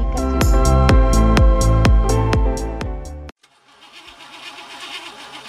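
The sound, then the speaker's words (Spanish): A car engine cranks over and over in a loud, rhythmic chug but never catches, lasting about three seconds before stopping abruptly and leaving a faint, hissy background. “Tu auto está fallando.”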